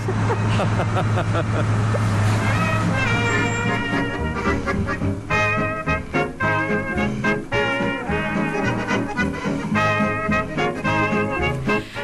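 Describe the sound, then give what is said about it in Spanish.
Heavy farm tractors run loudly and steadily at a straw festival on a farm, with a low rumbling drone, rising mechanical whines and bursts of blowing noise as they power a straw cannon. “Con ese cañón de paja y el sonido de los tractores, bueno, rompía un poco esa tranquilidad que nos encontramos en, la granja, ¿no?”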